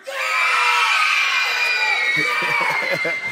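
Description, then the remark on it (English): A group of children screams loudly and continuously on a count of three, a dense, high-pitched wall of shrieking voices that holds for a few seconds before fading into scattered cheers. “On the count of three, scream as loud as you want.”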